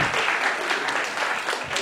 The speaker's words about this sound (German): Ihr dürft euch wieder hinsetzen und einen kleinen Applaus an uns als gemeine Familie.